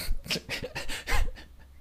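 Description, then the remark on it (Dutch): A fat dog pants quickly and steadily, with short breathy huffs in an even rhythm for about two seconds. No one speaks. “Ja, dikke hond.”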